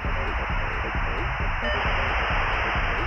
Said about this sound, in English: I got online using a modem that made a sound like a sick transistor radio.